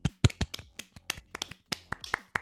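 A few people clap unevenly, giving a quiet, irregular patter of sharp hand claps that lasts about two seconds, with no talking underneath, welcoming an invited guest onto a show.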